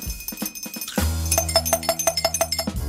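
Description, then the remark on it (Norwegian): A small bell worn by Ed like a cow's bell, rung to talk in place of his lost voice, rings in a quick, steady series of bright metallic clangs, fairly loud, with a low sustained hum beneath and no one talking. “Hvorfor har Ed på seg bjelle som en ku?”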